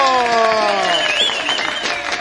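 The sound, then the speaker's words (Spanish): Loud, sustained applause from a crowd at a radio broadcast event in Peru celebrating 77 years since the recognition of the peasant community of Chota Jiquí, dense overlapping claps with voices calling and cheering over them, holding steady for the whole stretch. “Esos aplausos, que vengan los aplausos.”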